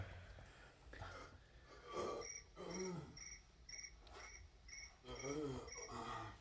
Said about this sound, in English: I hear crickets.